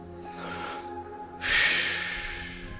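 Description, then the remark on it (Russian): Heavy breathy puffing, a voice imitating a chugging steam locomotive: a short soft puff, then a louder, longer forceful exhale, over a faint steady hum. “Я, я, э, э, для меня я начинаю как паровозик пыхтеть. Пух, пух, пух.”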